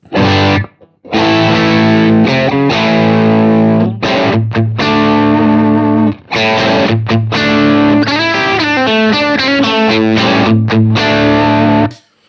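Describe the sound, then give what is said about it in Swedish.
A heavily distorted electric guitar plays loud, sustained riffs through an amp pedal with gritty crunch, the pedal's treble turned to zero, Bright volume at 12 o'clock and volume 2 at maximum; short pauses between phrases and fast note changes near the end. No one talks over it. “Gör samma sak på diskanten då. Nu är den på noll.”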